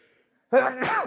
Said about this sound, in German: Gesundheit.